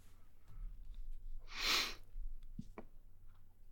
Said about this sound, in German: Äh, ich wollte eigentlich nur sagen, klingt spannend, aber mir, mir stand, mir ist einfach ein, ein Rülpser quergestochen, ausnahmsweise. Kommt nee, vor. Wolltest du nicht laut rauslassen?